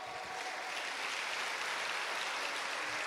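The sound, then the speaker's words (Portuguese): An audience claps together in praise of the Lord during a night worship service, a steady, dense wash of applause that holds at an even level for about three seconds, with no voices standing out. “Tem alguém aqui para adorar com palmas, com júbilo ao Senhor?”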